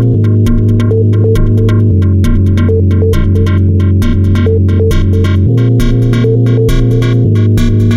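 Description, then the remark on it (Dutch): A loud, driving techno track with a steady pulsing beat, crisp hi-hat ticks and a deep sustained bass line, playing on its own without any talking. “En zijn muziek die klinkt zo.”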